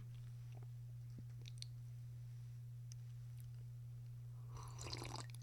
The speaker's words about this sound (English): Quick sip of water, boss. Don't mind me, boss.